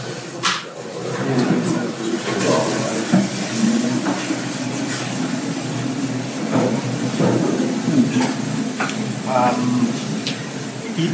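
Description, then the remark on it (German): Water is poured into bread dough in a steady, hissing stream lasting several seconds, moderately loud, with light kitchen clatter and a faint, muffled voice in the background. “Und jetzt brauchen wir nur noch Wasser. Also, mal Wasser.”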